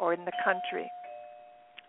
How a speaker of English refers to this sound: just excuse the doorbell right now that you may hear.